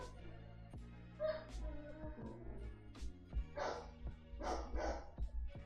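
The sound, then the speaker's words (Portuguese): A neighbour's small dog barks in short, sharp bursts, several yaps spaced irregularly over a low steady hum, moderately loud, with a faint whimper between barks. “Então vocês vão ouvir de vez em quando aqui o, o, o, cachorrinho latindo.”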